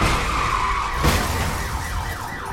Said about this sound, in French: Derrière la voiture de police, il y avait d'autres voitures. Oh oh. Maintenant, toutes les voitures accidentées klaxonnent. Toutes les voitures qui peuvent encore rouler klaxonnent.